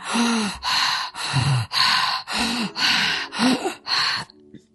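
Forceful breaths pushed entirely through the mouth in a fast, steady rhythm, about eight loud, breathy huffs, each with a slight voiced edge, ending abruptly; a breathing exercise done with a hand on the thymus and the head tilted slightly down.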